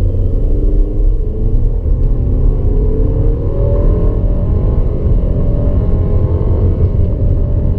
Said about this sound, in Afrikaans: Kraglewering is billik hoewel die masjien nogal raserig raak teenoor toere.